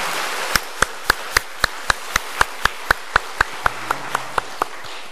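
A church audience on Easter morning claps in steady unison as thanks and glory to the risen Lord, sharp even beats roughly three or four per second over a soft wash of scattered applause, with no voices.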